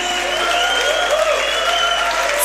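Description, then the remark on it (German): A crowd at a church worship service applauds for Jesus steadily in a large, reverberant hall, dense clapping at an even level throughout, with a faint sustained tone ringing underneath. “Hey, komm, gib doch Jesus mal einen Applaus.”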